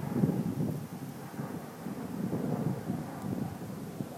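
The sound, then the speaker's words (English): Gusty wind buffets in a steady, low rumbling roar throughout as light rain begins to sprinkle at night, with no one speaking. “Okay, it's just started sprinkling.”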